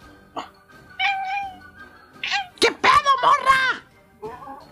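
A cat meows several times in a row, fairly loud, with drawn-out, wavering cries clustered in the middle; a short meow comes early and a softer one near the end.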